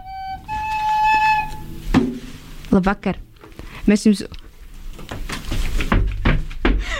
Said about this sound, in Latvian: Šī lūk ir mīkla. Kāds nāk iekšā pa mūsu studijas durvīm? Kas tas ir?